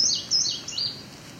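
A small songbird gives three quick, high-pitched chirps in a row, fairly clear, with a faint outdoor hush underneath and no one talking.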